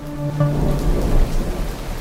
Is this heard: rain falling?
yes